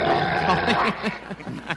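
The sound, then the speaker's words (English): A three-legged dog gives a rough, sustained growl that breaks into a series of short, throaty grunts and huffs, fairly loud, with no one talking. “actually have the dog on the podcast right now.”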